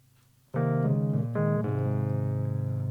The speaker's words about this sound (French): On m'entend bien au piano?